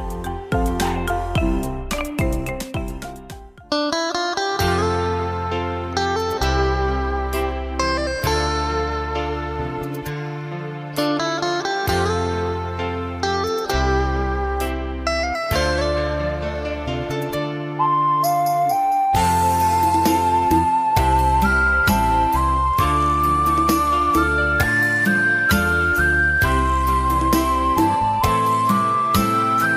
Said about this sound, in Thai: สำหรับช่วงนี้เรามาพักฟังเพลงจากทางรายการกันก่อนแล้วกลับมาพบกันในช่วงหน้าค่ะ